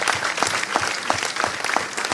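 Sustained audience applause, a dense wash of many hands clapping at steady loudness, with a few sharper individual claps standing out rhythmically through the crackle.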